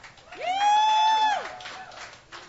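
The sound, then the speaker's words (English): A small crowd claps steadily for a couple of seconds for the show's sound technician, while one person lets out a loud, sustained whoop over the applause. “Let's hear it for him.”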